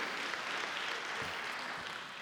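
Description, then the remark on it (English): A crowd at a morning worship gathering applauds the hospitality team for breakfast, dense overlapping claps forming a continuous wash of sound that holds for a couple of seconds before easing slightly at the end. “Give a, give a can clap of praise for them.”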